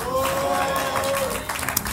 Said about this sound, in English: Clap your hands and shout glory.